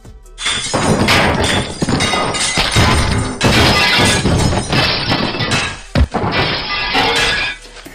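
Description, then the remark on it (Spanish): Someone dumps trash onto the street: a loud, continuous run of clattering, crashing and shattering glass that barely lets up for several seconds, with no one speaking. “Ahora dibujé una persona tirando basura en la calle.”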